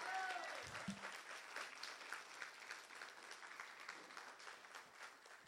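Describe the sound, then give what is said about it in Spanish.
A church audience applauds God's truth during a bilingual Spanish-English sermon, with steady, dense clapping that holds at an even level for several seconds, and a brief tonal sound rises near the start. “Vamos a darle un aplauso a la verdad de Dios.”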